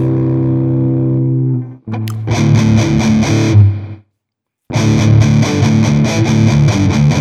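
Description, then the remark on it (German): Electric guitar played through a TC Electronic effects pedal: a sustained, bass-heavy chord rings out, then dense distorted strumming follows, cuts off briefly into silence, and resumes loud and gritty. No one speaks. “Ja, ich wollte gerade sagen, es ist bassig, aber der Clean Sound ist auch recht bassig, von daher.”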